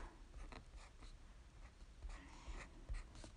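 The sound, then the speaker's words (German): Soft scratching of a black pen writing on a sticker label in short irregular strokes, with faint breathing and low background rumble, no talking. “Ja, ich schreibe da jetzt mit irgendeinem Stift, ähm, den man gut sieht.”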